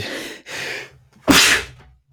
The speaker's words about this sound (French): Je vais éternuer, je vous le dis.